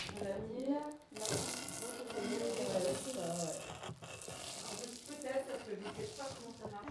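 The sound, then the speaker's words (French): A light crêpe-style batter fries in a pan with very little olive oil, cooked on both sides for a few minutes, a steady crackling hiss that runs almost the whole time, briefly dipping near the start, while voices talk over it. “je, ferai cuire ensuite euh, dans, une poêle avec très très peu d'huile, une bonne petite huile d'olive, et recto verso pendant quelques minutes.”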